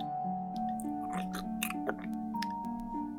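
Several wet, crunchy chewing bites come in quick irregular bursts, set against a steady sustained musical drone that hums underneath throughout.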